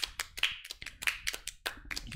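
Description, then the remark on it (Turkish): A short burst of hand clapping for the moderators of a live stream chat, quick irregular claps crowding together like a small round of applause, moderately quiet and steady for a couple of seconds with no voices. “Efendim şu anda chatte de belki eğer efendim modumuz varsa sevgili saygıdeğer modlarımız kendileri için bir alkış alalım diye düşünüyorum ben.”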